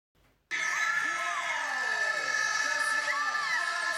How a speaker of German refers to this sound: Da hört man die ganz enthusiastisch schreien. Der Schrei des Sieges. Ja, das, das war die Abfahrt, gell? 2019 Garmisch.